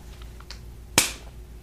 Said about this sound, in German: Okay, wirf eine Münze. Kopf oder Zahl?